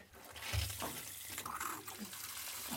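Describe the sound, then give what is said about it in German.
Warm water pours steadily from a tap into a bathtub filled with snow, a continuous hiss and splash with a brief thump near the start, no voices present. “Dann lasse ich mal ein bisschen warmes Wasser dazu.”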